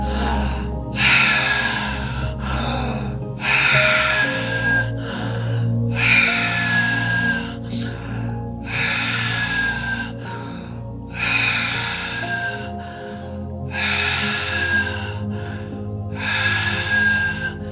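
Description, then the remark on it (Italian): Steady, rhythmic breathing in through the mouth, each airy, loud breath following the last about every second or two, with a low continuous hum underneath and no talking. “prendere l'aria per bocca va bene.”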